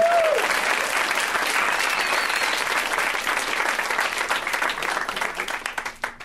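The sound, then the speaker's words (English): An audience breaks into loud, sustained applause, a dense wash of clapping that holds steady for several seconds before thinning into scattered claps at the end. “Round of applause for this gentleman.”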